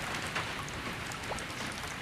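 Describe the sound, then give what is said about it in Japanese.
Steady, heavy rain pours down in a dense, continuous hiss with scattered drops spattering, on the way over Suzuka Pass in Japan, filling the whole stretch without any voices. “私は茶店を出ると一刻も早く鈴鹿峠を越したいと思い降りしきる雨の中を駆け下りました”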